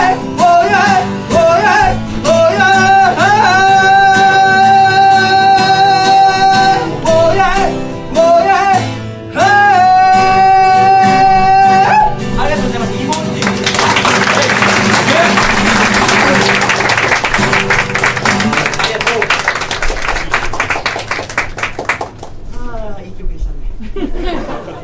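A live band plays the final sustained chords of a song, then a crowd breaks into loud, dense applause that lasts several seconds before trailing off.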